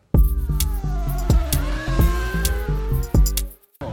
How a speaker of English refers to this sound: sit back, relax, and enjoy the melodic tones of our silky voices as we scream over the sound of Formula 3 cars whizzing by.